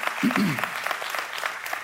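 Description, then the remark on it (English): A crowd claps together in a dense, steady patter of many hands, with a brief voice rising over it near the start. “And when you learn that, we can clap for that, that's good.”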